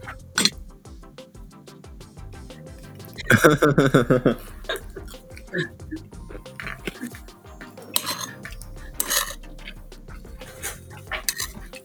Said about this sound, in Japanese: でも、ルイさんが生活感が漂う、あの、食器の音が気持ちいいってね、コメントくれましたね。